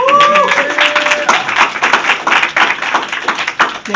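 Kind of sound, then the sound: crowd, audience applause and clapping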